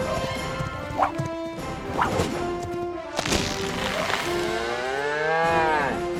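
Cattle moo loudly, several short calls followed by one long, drawn-out, wavering moo, with a few sharp knocks and clattering thuds scattered between them.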